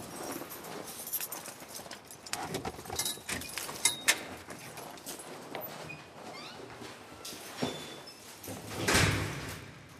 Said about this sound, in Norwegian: På knippet er det utallige nøkler som ser helt like ut.